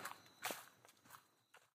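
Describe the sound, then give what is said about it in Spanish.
Quick footsteps of a person running into a forest across crunchy, leafy ground, about five broad impacts in an uneven hurried rhythm, moderately loud with no voices. “aprovechó para poder salir corriendo al bosque en busca de ayuda.”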